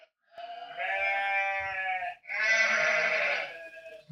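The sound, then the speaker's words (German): A sheep bleats twice in close succession, each call long, wavering and loud, with a brief pause between them and nothing else heard. “Ähm, dann, dann, dann, das war doch so schön mit den Schafen, warte.”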